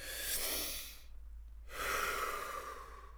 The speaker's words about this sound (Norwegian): Det er det jeg pleier å gjøre når jeg kjenner at jeg er litt stressa. Tar ett dypt pust, slipper magen helt ut.